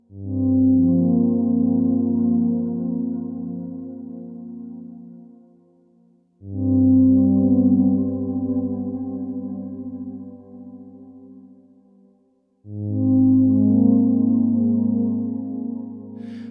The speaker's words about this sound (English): those I did, you know, with analog synths and um, and you know tons of reverb and stuff.